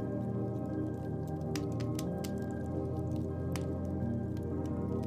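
Melted wax, heated on a spoon over a candle, is poured into cold water, giving a handful of short crackling pops and drips in quick succession over a steady, low humming drone. No one speaks.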